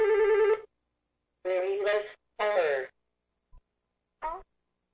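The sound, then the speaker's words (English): A telephone rings with a melodic, tonal ringtone in several separate bursts, fairly loud, with short silent gaps between them, as a call comes in to a live radio show. No one speaks. “And there's the phone.”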